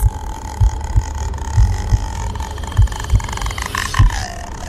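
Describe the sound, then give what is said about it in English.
An eerie, ghostly croaking rattle from Takashi Shimizu's 2004 supernatural horror film The Grudge rises over a steady eerie drone, with low thumping pulses beating irregularly underneath; no one speaks. “So that eerie croak is from Takashi Shimizu's 2004 supernatural horror The Grudge, which was itself an American remake of his own 2002 Japanese version.”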